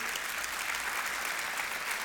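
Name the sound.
audience applause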